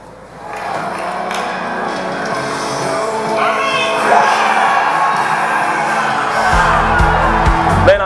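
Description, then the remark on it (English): A huge baseball stadium crowd of Mets fans roars and cheers continuously after Tony Marte's game-winning single in the bottom of the ninth against the Yankees, with whoops and shouts rising over a dense wall of noise that swells louder toward the end, punctuated by deep booming bass. “Look how crazy the Mets fans are going.”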